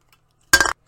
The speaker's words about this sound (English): So I, I seem to have um, dropped my coke can on my keyboard and it stopped the recording there for a little bit.